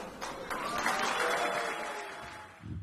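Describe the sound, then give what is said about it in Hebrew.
Loud, stormy applause from a large crowd at Kadima's 2009 Israeli election-night event, following Tzipi Livni's speech on the results, a dense wash of clapping that holds steady for a few seconds with a faint murmur of voices and a brief low rumble at the end. “מחיאות כפיים סוערות.”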